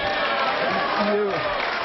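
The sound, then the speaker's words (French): Crowd applause, a dense, steady clatter of many hands clapping for the whole two seconds, with a few voices briefly rising above it partway through. “Beaucoup d'applaudissements”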